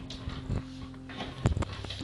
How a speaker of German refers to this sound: Da klopft jemand. Warum klopft da jemand? Eine völlig spooky Situation gerade.